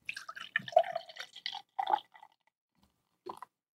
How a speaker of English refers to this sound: I believe I just poured myself a six ounce pour. I used to be able to do this.